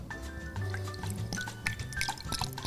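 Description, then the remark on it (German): Grape juice pours steadily into a glass, a continuous gurgling splash lasting a few seconds with a faintly rising pitch as the glass fills. “Ein Euro habe ich hier reingeschüttet.”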